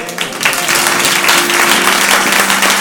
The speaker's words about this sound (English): A round of applause.